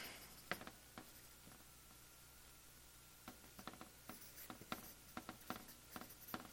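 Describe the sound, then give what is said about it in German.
A pen that does not write well scratches and squeaks across a board in short, irregular strokes, a steady run of small taps and scrapes with no talking, starting sparse and getting busier toward the end. “Der Stift schreibt leider nicht so gut.”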